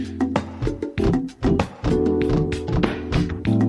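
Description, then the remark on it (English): An Icelandic Viking thunderclap chant, done when cheering for Iceland, performed by voices, with a series of sharp, loud claps and grunted shouts repeating at an uneven pace over a dense, droning tonal backdrop. “When you cheer for Iceland, you get to do the Icelandic Viking chant.”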